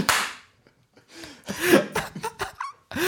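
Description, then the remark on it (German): One loud, sharp hand clap, then a brief pause before breathy laughter and short vocal sounds. “Das Klatschen war gerade sehr professionell von mir, es tut mir leid.”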